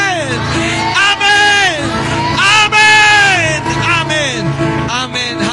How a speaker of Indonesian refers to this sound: Haleluya beri sorak sorai bagi Tuhan.